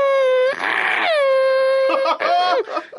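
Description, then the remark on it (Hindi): A person, a doctor and car enthusiast, imitates a Formula One car's V8 engine with their voice: a loud, high-pitched nasal whine, held and bending in pitch across a few bursts, like a car screaming past. “देखो सब जानते हैं कि मैं एक क्वालिफाइड डॉक्टर हूँ मैं गाड़ियों का बहुत बड़ा एंथुजियास्ट हूँ लेकिन मैं ना एक फॉर्मूला वन कार जो दो में जो वी एट इंजन उनका चलता था उनकी आवाज बड़ी अच्छे से निकाल सकती गड्डी की आवाज”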